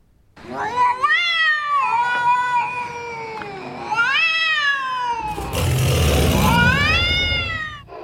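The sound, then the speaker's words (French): A person's voice imitates a cat with drawn-out, wavering meows and yowls, several in a row, with a burst of breathy noise partway through. “Oh putain, tu fais super bien le chat.”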